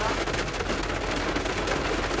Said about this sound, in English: it's pouring down rain about to come in